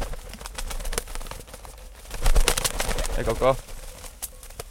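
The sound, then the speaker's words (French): A pigeon, trained over three to four weeks to fly from one tree to another, coos outdoors, a short soft rolling call, with rustling and faint background sounds around it. “C'est un entraînement pendant 3-4 euh, semaines du pigeon pour qu'il puisse aller d'un arbre à, l'autre.”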